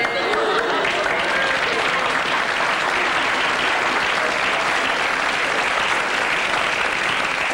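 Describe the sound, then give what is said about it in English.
A large Irish studio audience breaks into sustained, loud applause with scattered cheers at talk of having no work, steady clapping filling the whole stretch without any talking. “No work seems very popular with the Irish audience.”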